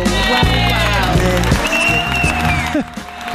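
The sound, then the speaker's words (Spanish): A crowd at a food venue, where people in line are trying the food, applauds steadily for a few seconds, the clapping dense and continuous, mixed with tonal background sounds and voices underneath. “¡Bravo! ¡Aplausos!”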